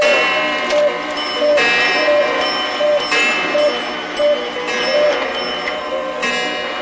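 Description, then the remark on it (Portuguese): Many clocks, all set 25 minutes slow, going off together for eight o'clock: steady ticking under overlapping bell-like chimes and tones that ring out repeatedly, loud, filling the whole stretch. “Esse barulho são os meus relógios? É! Agora são 8 horas.”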